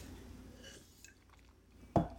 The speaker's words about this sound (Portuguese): Deixa eu tomar uma água antes, peraí.